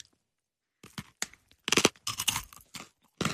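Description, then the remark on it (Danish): Crisp crunching as someone bites into and chews crispy fried pork belly, with irregular bursts of crackly chewing after a short silence. “Men Den er nok knastør. Hvad? Panering? Nej, den her stegte flæsk.”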